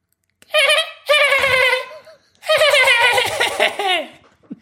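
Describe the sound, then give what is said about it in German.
A voice imitates a dolphin with high, squeaky chattering chirps in three bursts, a short one followed by two longer runs of wavering, trilling squeals, fairly loud. “Ein Delfin.”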